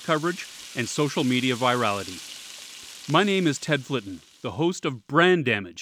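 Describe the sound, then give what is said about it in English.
A steady, faint crackling hiss like food sizzling in a frying pan runs underneath a man speaking clearly in the foreground. “That is the sound of yet another corporate reputation getting sizzled from the heat of negative news”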